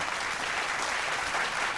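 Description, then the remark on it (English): A crowd applauds steadily, a dense wash of many hands clapping at a constant, fairly loud level throughout, with no voices standing out, applauding a shirt slogan reading "Hip hop didn't invent anything. Hip hop reinvented everything." “So let's clap that up. Just some love.”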